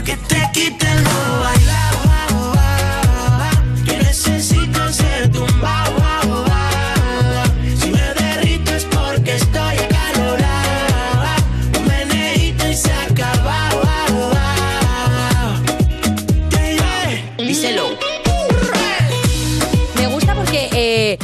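A pop song plays loud and close, a full mix driven by a steady, punchy beat and bright layered melody, with a brief drop near the end before the groove returns.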